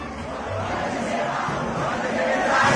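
A massive crowd of football supporters chants together in a stadium at a Copa Libertadores final, a dense, unbroken wall of voices that swells slightly louder toward the end.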